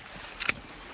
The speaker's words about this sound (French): Et là, ce que vous entendez, c'est le son du sécateur